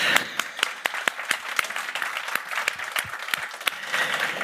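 Sustained applause from a crowd welcoming an interview guest on a business talk show: dense, crackling clapping that holds steady for several seconds, with sharper individual claps popping out at irregular moments. No one speaks over it.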